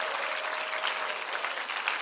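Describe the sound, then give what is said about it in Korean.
A crowd claps steadily, a dense, even wash of many hands with no pauses and no voices over it. “할렐루야 박수 좀 쳐 이럴 때 빼고.”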